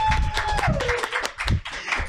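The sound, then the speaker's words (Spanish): Brisk, irregular clapping from a small group fills two seconds at a steady loudness, with a faint whistle-like tone sliding downward in pitch over the first second. “¡Aplausos, por favor!”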